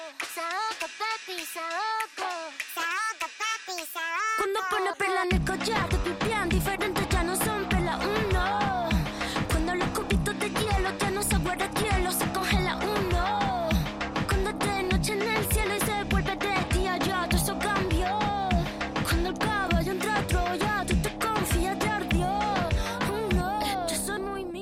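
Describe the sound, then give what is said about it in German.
A pop song with South American-style drums: a few seconds of sung vocals over sparse backing, then a heavy, driving percussive beat with deep bass kicks in and carries on loud and steady. “Ähm, vielleicht schmeiße ich auch mal noch einen Song rein. Der geht nur zwei Minuten, das heißt, den kann man schnell hören.”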